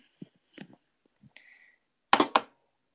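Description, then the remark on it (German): Two sharp, hard knocks of a small polished volcanic stone, kept as desk decoration, tapped lightly on a desk in quick succession, preceded by a few faint handling clicks and rustles, with no talking. “Ähm, klopft damit nur so leicht auf den Tisch.”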